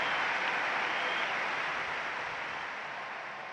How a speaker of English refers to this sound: London 2012, but now it's gone. Huge applause all around the arena.